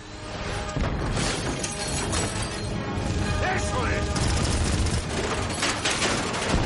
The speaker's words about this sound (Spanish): ¡Cargando proyectiles! Disparan varios misiles contra ella.